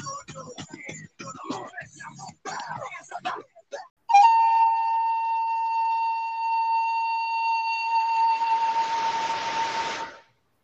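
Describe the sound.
A voice talks for a few seconds, then instrumental music takes over: one long, steady, high melodic note held for several seconds, turning breathy and swelling before it cuts off.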